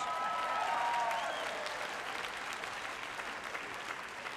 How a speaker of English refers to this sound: If you clap, I can't get through in 25 minutes. the pressure's on.